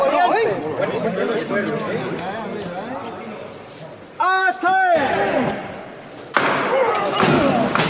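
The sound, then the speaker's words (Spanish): A crowd murmurs steadily inside the parish church of San Julián, then a single heavy thud rings out as bearers make the first lift of the pallium float of the Virgen de la Iniesta, followed by a brief hush before a loud wash of crowd noise returns. “Pues en estos momentos van a hacer la primera levantada”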